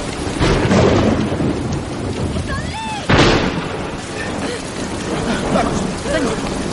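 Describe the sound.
Heavy rain hisses steadily throughout a thunderstorm, broken midway by a sudden loud crack of thunder that rolls on. A few brief voices call out over the downpour.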